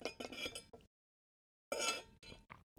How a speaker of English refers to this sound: Sorry, all my cup is loud AF.